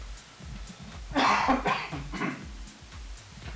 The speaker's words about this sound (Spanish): Creo que el vino me está haciendo toser de más.